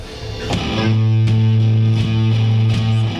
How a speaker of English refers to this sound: You want to hear what a manatee sounds like?